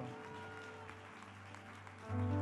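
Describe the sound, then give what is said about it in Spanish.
A church audience claps steadily in praise of God in a dense, continuous patter, with sustained low musical tones underneath that swell louder near the end. “Es aplauso para nuestro Dios.”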